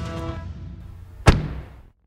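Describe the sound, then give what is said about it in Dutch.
A door slams shut with a single heavy, sharp bang, following a soft creak and shuffle, and the low rumble quickly dies away into silence. “Dus ik gooi maar een deur dicht.”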